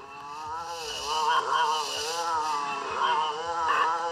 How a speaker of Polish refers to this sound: Tak, jest to ryk Sasquatcha z przedmieścia. Ryk, którego można się przerazić.